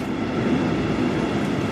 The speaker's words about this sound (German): du bist jetzt im Erdgeschoss gerade mal auf Höhe der Gleise. Das heißt, du kannst jetzt äh, den Zug auf Augenhöhe vorbeifahren sehen, trotz dass du im ersten Stock bist.